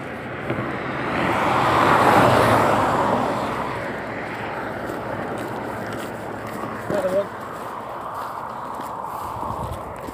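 A car passes by on a countryside road with little traffic, its engine and tire noise swelling loudly in the first seconds and then fading away into a steady outdoor hum.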